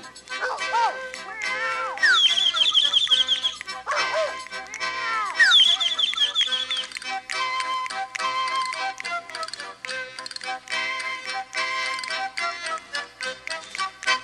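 Several high, bending kitten meows sound in quick succession over a bright, steady musical backing, loud, with the cries clustered in the first half before the music carries on alone.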